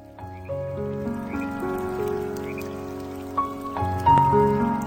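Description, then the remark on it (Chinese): Steady rain falls as a continuous hiss throughout, with soft sustained musical notes layered over it and a slight swell near the end; no one speaks. “下雨的时候睡觉总是很香，可能是因为下雨的时候天气凉，才觉得被窝是如此温暖。”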